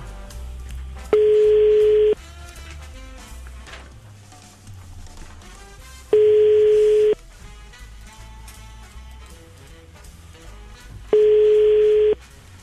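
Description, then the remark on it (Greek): A telephone ringback tone sounds three times, each a steady one-second beep about five seconds apart, fairly loud over quiet background music, as a radio presenter calls a listener on air and the call goes unanswered. “Δεν το έχουμε σήμερα με τα τηλέφωνα από ό,τι φαίνεται.”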